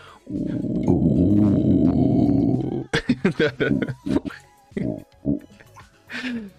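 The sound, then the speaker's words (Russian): A man delivers a loud, gravelly growled imitation of the anthem of Great Turan, a sustained rumbling vocal for about three seconds, followed by bursts of talking. “Во-первых, я бы хотел, кстати, изобразить, как э, звучит, э, как это назвать, гимн великого Турана.”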